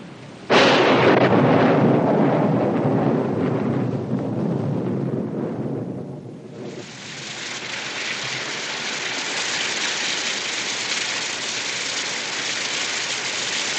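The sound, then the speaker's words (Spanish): A loud, rolling thunderclap booms right away and rumbles for several seconds as a storm breaks outside a ranch house, then fades into the steady, dense hiss of heavy rain pouring down. No voices. “exterior de la casa se desata una tormenta.”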